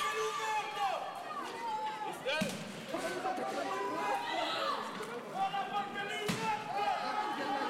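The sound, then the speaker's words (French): Two sharp, heavy blows ring out a few seconds apart as hammers strike shop windows in Paris, over a dense crowd of shouting and chattering voices. “C'est ensuite au tour des vitrines de la Soleil de danser avec les marteaux.”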